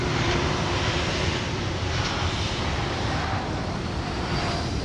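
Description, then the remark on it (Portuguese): A steady, loud airplane engine roar, heard from the balcony of Madeira International Airport, fills the whole stretch, a broad continuous rumble with no pauses or voices. “Da varanda do Aeroporto Internacional da Madeira”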